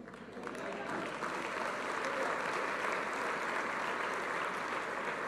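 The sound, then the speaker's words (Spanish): An audience applauds the Lord loudly and steadily, a dense wash of many hands clapping that swells within the first half second and holds at full strength with no voices standing out. “Ah, fuerte el aplauso al Señor por la obra maravillosa que Él hizo.”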